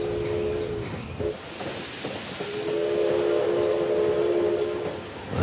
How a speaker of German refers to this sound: Ah, der Zug setzt sich in Bewegung. Er nimmt die rechte Kurve am Johannisbeerstrauch, fährt durch die Ziertanne über die erste Weiche in der Ligusterhecke.